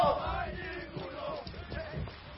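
A rowdy gang of men shouting and yelling together as they move through empty streets, several voices overlapping in a loud, boisterous din that carries steadily for a few seconds with no clear words.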